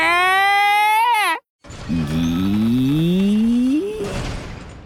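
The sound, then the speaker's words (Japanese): A huge door at the entrance of a cave creaks open: a high, squealing groan of the hinges, a short silence, then a long, low rising creak over a rumbling scrape that fades out. “巨大な扉が開きました”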